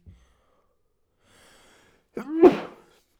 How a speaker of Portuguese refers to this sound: Pá, não vos dá boa raiva quando vocês estão a, tipo, vão espirrar uma vez, depois vêm boés. Boés espirros. Pam, pam, pam, pam. Eu estou a falar e agora está a vir outro.